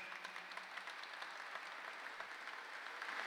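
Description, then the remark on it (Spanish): Steady applause from an audience at a gathering of choirs, a dense crackle of many hands clapping at an even level throughout, with no voices standing out. “un fuerte aplauso para Xavi.”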